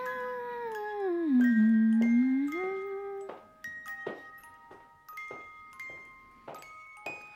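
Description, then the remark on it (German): A music box with Beethoven on it plinks out a slow tune, the Ode to Joy (Freude, schöner Götterfunken) melody from Beethoven's Ninth Symphony. Its bright metallic notes ring one by one after a long, sliding whine-like tone fades away at the start. “Ja, das ist Freudeschöner Götterfunken aus seiner letzten Sinfonie, aus der neunten Sinfonie.”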